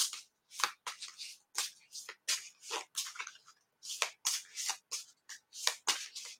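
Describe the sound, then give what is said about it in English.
A deck of tarot cards being shuffled, a steady series of crisp, papery riffles and slaps in quick irregular bursts, with no one speaking. “So as I shuffle here,”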